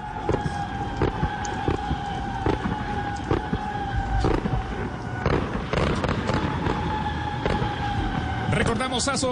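Fireworks explode in a rapid, irregular series of sharp bangs at a football stadium in La Paz, Bolivia, before a Qatar 2022 World Cup qualifying match, with a steady tonal drone and crowd-like din underneath, all fairly loud and continuous.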